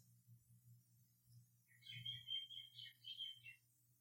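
Birds chirp in a quick cluster of high, bright calls about midway through, fairly faint over a steady low hum, with no talking.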